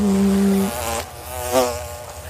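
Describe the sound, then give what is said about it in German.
A steady insect buzz drones, its pitch wavering as flies circle, with a brief louder swell midway before settling back into a continuous hum. “Und von vor dir fliegen. Fliegen. Mhm. Ja, du hörst so.”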